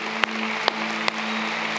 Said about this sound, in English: Hey, church, can we just give a round of applause to those decisions?